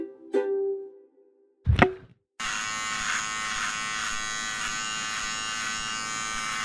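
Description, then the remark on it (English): Two sharp clicks, then an electric shaver switches on and hums with a steady, loud buzz as it shaves off a man's beard, continuing unbroken to the end, with no one talking. “One day, when Andrzej's beard gets too big, he asks Shey for help shaving it off.”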